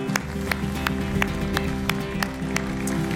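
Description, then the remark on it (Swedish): Steady, evenly spaced claps ring out about three times a second over a sustained low droning tone, a rhythmic round of applause for Jesus at a Sunday morning church service, with no voices. “Ska vi ge Jesus en stor applåd idag?”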